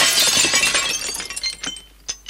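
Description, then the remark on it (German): A grandmother's porcelain dishes shatter in a loud crash, followed by scattered shards clinking and tinkling as they settle, with a final sharp piece hitting the floor near the end. “Oh Mann, jetzt ist es kaputt. Hey. Na super. Das Geschirr von der Oma.”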